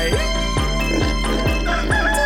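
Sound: rooster crowing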